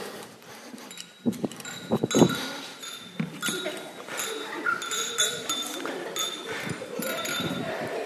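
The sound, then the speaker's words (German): Several bright clinks of glasses tapping together in quick succession near the start, ringing briefly, in a toast to the bride and groom at a festive celebration, followed by a murmur of voices and chatter in the background. “So, also, dann tun doch einmal auf die Brütigam und auf die Brut anstoßen.”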